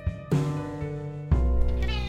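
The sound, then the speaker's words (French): A cat named John Malkovich, hungry because no kibble was left out for it that morning, meows twice in a row, each call a long, drawn-out, insistent cry, the second rising louder and more strained than the first, with no talking. “Salut John Malkovich Ouais, je sais, j'ai oublié de te laisser des croquettes ce matin et t'as la dalle.”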